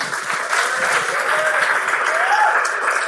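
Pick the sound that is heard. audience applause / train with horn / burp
audience applause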